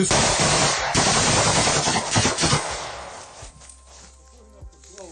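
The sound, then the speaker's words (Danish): A rapid burst of loud automatic gunfire, with sharp cracks crowding together for about three seconds before fading into quieter echoes and low rumble, as a Ukrainian soldier is shot in a war video. “Slava Ukraine, siger han, før han bliver skudt og falder til jorden.”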